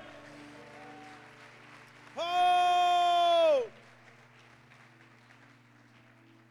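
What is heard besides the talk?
audience applauding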